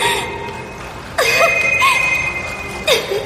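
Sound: telephone ringing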